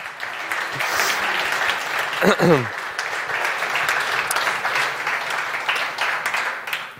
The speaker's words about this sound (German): Ähm, wir, können erstmal ganz lange klatschen. Erstmal herzlichen Dank.